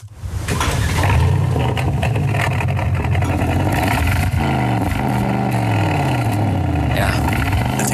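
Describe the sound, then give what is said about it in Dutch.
A 4-liter twin-turbo V8 engine of an Aston Martin DBX SUV revs loudly, its deep rumble climbing and dropping in pitch through several sweeping revs, with no one speaking. “Ja, dit is de V8, hè, de, 4 eh, liter grote V8, uh, eh, twin turbo,”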